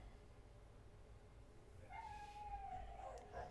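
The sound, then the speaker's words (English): A dog howls in the distance, one long, wavering, high-pitched cry rising out of a low background rumble partway through and holding until the end. No one speaks. “There's the dog back there screaming.”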